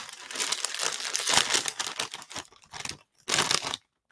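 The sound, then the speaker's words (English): A bag of sea salt flavored popped snack is torn open with a burst of loud, crackly crinkling, settling into irregular rustles, then one last sharp crinkle before it stops. No one speaks. “So, we're gonna open this one up and hopefully it's good enough”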